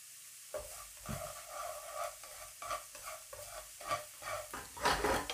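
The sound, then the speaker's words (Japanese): Fried rice (chahan) being stir-fried in a hot pan: a steady sizzle with repeated scraping and tossing strokes at an uneven rhythm, fairly loud, with no voices. “チャーハンを作りましょう”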